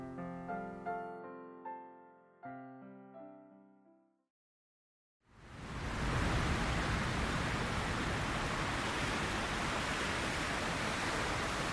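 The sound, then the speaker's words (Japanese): After a few ringing piano-like notes and a brief silence, the steady roar of Sea of Japan surf at Kikugahama beach in winter, in strong wind, rushes in loud, a continuous wash of breaking waves with no voices. “とりあえず私たちは日本海を望む海岸線を目指した”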